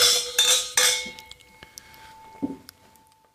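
Several bright clinks of wine glasses raised in a toast ring out in quick succession, their sustained tones lingering and fading, followed by a few softer taps and a faint thud.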